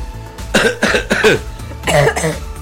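A close, fairly loud bout of coughing: three harsh coughs in quick succession, a short pause, then two more. No one speaks.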